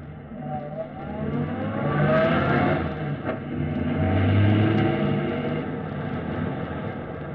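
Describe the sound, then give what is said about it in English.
A car engine runs steadily as the vehicle drives, its hum swelling and easing with a broad, rumbling whir and faint tonal rises, loud and continuous with no voices. “I don't like driving around with anything hot like ah, this.”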